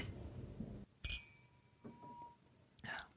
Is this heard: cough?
no